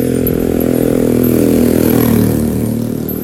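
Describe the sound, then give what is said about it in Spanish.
A motorcycle engine roars, its deep throbbing drone steady and loud, rising slightly in revs before beginning to fade as it moves off. “¡Ay, estas motos!”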